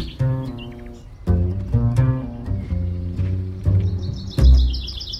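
Springtime birdsong in the countryside with six or seven species calling at once, including nightingale, common whitethroat and larks: overlapping chirps, whistles and trills in a steady, busy chorus, moderately loud, with no talking.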